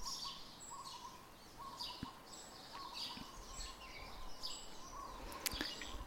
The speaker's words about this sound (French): Et puis vous entendez les bruits de la nature, le vent dans les arbres, les oiseaux et vous profitez de ce moment de détente.